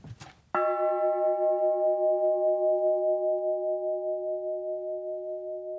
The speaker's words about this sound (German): diesmal eine Barockglocke, auch mit Riss im Schlagring, vermutlich von außen beschädigt. So, dann schlage ich die mal an.